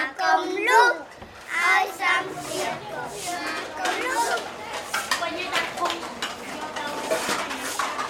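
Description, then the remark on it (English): Dishes and cutlery clink and clatter repeatedly as women clean the outdoor dining area of a shelter after the morning meal, while several people chat, with higher children's voices mixed into the busy, continuous activity. “The morning meal is done. Some women are cleaning the outdoor dining area, some come in to talk to us.”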